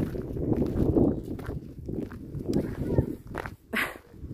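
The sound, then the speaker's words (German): A dog named Lennox barks in the background outdoors on a property in Montenegro, the clearest bark coming near the end, while footsteps crunch and shuffle steadily as someone walks across the grounds. “Lennox bellt im Hintergrund.”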